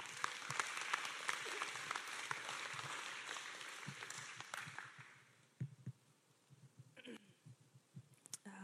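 An audience at a church gathering applauds to welcome the next speaker, with dense, steady clapping that fades out after about five seconds, leaving scattered individual claps and faint shuffling.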